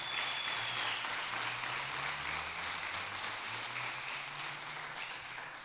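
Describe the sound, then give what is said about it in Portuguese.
An audience at a Portuguese-language sermon gives a round of applause to Jesus, a dense, steady wash of many hands clapping at once that holds at an even level for several seconds, with a faint low hum beneath. “Se você é esse, dá uma salva de palmas a Jesus.”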